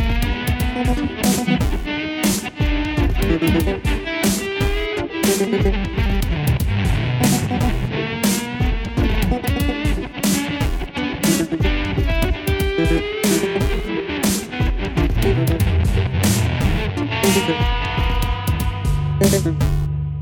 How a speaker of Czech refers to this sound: Na úvod jsme slyšeli krnovského hudebníka, kytaristu a skladatele